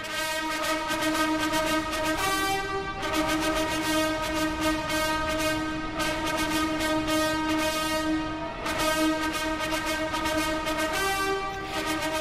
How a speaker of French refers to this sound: Quelques minutes avant l'entrée de Charles et Camilla dans l'abbaye de Westminster, ils sont descendus de leur carrosse au son des trompettes.